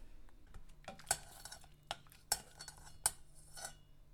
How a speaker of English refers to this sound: So I'm just going to fish this lemon out.